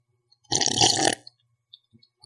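A single loud slurping sip, the last sip of a drink, lasting about half a second, followed by a few faint clicks and mouth sounds in otherwise quiet surroundings.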